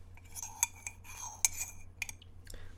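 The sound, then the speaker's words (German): Several sharp ceramic clinks of a caramel cappuccino cup and spoon, fairly quiet, spaced irregularly over a few seconds with soft rustling in between and no talking. “Dafür gibt es heute äh, Geräusch, ne? Hier”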